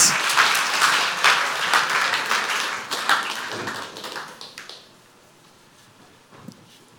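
An audience applauds with a dense, steady wash of clapping for about four seconds, then it thins out and dies away into near silence, with a faint tap near the end.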